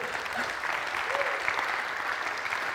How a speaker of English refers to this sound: But when I tell you that Flora stands up for the justice of refugees and asylum seekers and for their rights, you should give her a bigger round of applause than what you've just given her.